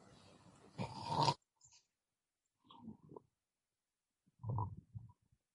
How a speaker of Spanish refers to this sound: Scrooge se despertó por uno de sus propios ronquidos.